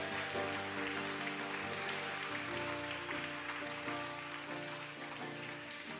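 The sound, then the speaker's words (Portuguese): An audience applauding to glorify the name of the Lord, a dense, steady wash of clapping that carries on for the full six seconds over sustained musical tones underneath. “Aplaudo e glorifica o nome do Senhor.”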